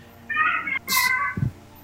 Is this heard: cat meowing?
yes